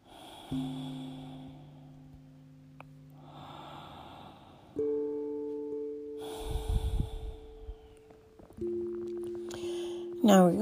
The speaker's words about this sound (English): Then we're going to take three or four nice long cleansing breaths. Begin.